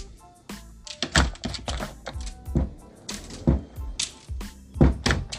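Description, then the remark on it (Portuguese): Doors slam again and again in an uneven rhythm, roughly eight heavy thuds over a few seconds, as Poliana bangs the doors behind her; no voices in between. “E batia as portas, e batia e batia mais portas. Era aqueles barulhos.”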